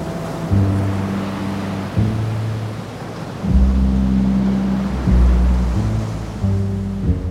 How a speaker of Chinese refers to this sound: 大风大浪在几个小时之内有几次。把大船狠狠地往上顶，又重重地将船往下挤压。